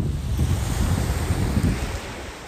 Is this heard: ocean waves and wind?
yes